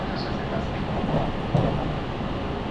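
Steady, loud rumble of a Special Rapid train on the Tokaido Main Line running from Toyohashi to Anjo, Japan, heard from inside a passenger car, with continuous low roar and wheel noise and a brief louder knock partway through.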